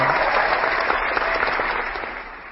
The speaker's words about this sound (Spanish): imaginad quién ha puesto el aplauso, no lo sabemos,